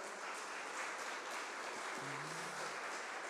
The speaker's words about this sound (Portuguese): Aplauda Jesus bem alto.